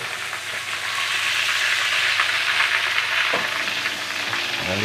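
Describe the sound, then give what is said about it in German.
Schnitzel sizzles steadily in a hot pan, a dense crackling hiss that stays loud throughout, with a few faint clinks near the end and no voices. “Also dann mit diesen wunderbaren Geräuschen. Das haben unsere Elisa eh lange hingehalten mit unserem Schnitzelkochwerk”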